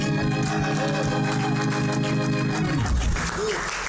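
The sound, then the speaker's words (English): An audience claps steadily throughout, a dense crackle of applause blended with sustained organ-like chords that hold and then shift near the end. “If it's good, say something or clap.”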